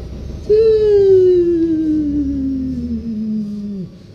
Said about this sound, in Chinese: 我先把那个洗衣机给关了，好吧？讲的很精彩的时候，洗衣洗衣机先关了，我这洗衣机像地震一样的， 像山竹一样的东西，这样。